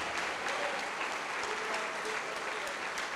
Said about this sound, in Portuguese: Vamos aplaudir ao Senhor Jesus.